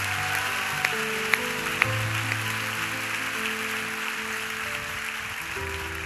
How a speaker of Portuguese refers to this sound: Vamos aplaudir a Jesus, é Ele que merece.